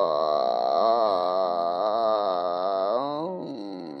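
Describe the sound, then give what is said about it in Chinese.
A voice imitates a buzzing bee with one long, steady droning hum lasting about four seconds. The pitch wavers slightly, then dips and softens at the end. “一只蜜蜂飞出了树丛。蜜蜂， 嗡，”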